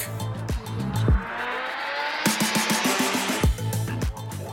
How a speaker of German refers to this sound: Hier in Nairobi bricht der Verkehr regelmäßig zusammen. Stinkende Lkw, Minibusse, klapprige Autos und Mopeds kämpfen auf zu schmalen Straßen um jeden Zentimeter.